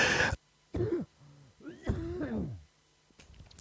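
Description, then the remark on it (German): A person coughs, two sharp bursts, then follows with a drawn-out, voiced throat-clearing rasp and a faint final hack. “Hoppala, da kommt der Husten.”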